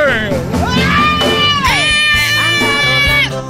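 A crowd gives a loud, sustained ovation, shrill cheering and screaming voices rising and falling over a steady roar, continuing without a break for a few seconds.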